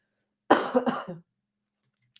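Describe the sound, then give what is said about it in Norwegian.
A single fairly loud cough with a rough, throaty rattle, followed by silence and a faint click. “Og så hoster jeg, fordi det her er vanskelig å snakke om.”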